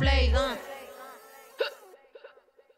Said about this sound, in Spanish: Tengo hipo.